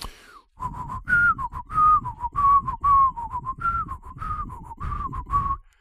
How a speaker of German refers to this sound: Der ist nicht tot zu kriegen und du kriegst ihn auch lange nicht aus dem Kopf, auch wenn du nur den Refrain behältst. Mhm. Den, den kann man aber auch pfeifen.